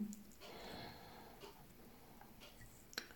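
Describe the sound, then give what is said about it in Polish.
A clock ticks faintly in the background, the soft, sparse ticks half-buried under a low hiss and a breathy rustle. “Jeśli słychać tutaj tykający zegar w tle, no to faktycznie, faktycznie”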